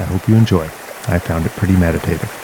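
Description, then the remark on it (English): Steady rushing water of a creek coming out of the Gatineau Hills toward Meech Lake in Gatineau Park, West Quebec, hisses continuously in the background while a man speaks clearly over it. “It's the sound of a rushing creek coming out of the Gatineau Hills heading towards Meech Lake in Gatineau Park in West Quebec.”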